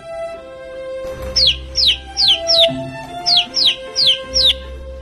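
Chick chirping: eight high, quick peeping chirps, each sliding downward in pitch, in two runs of four with a short pause between, over a soft low background hum.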